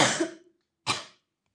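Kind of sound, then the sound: human body sound, cough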